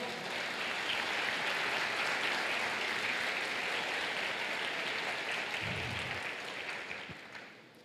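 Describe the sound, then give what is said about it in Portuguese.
A crowd claps steadily for several seconds, applauding the Lord at a preacher's call during a sermon, a dense, sustained wash of applause that gradually thins and fades toward the end. “aplauda ao Senhor.”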